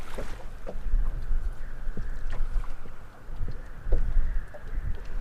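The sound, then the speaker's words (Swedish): A long boat's motor putters steadily in a low, continuous drone as the boat heads out from shore under a blazing sun to check fishing nets, mixed with wind buffeting and splashes of water, with no one speaking. “Solen gassar när den långa båten puttrar ut från stranden.”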